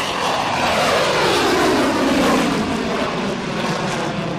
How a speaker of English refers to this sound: It seemed like every hour on the hour, you could hear F 16, and F 18 Tomcats scrambling from the airbase about a quarter mile away.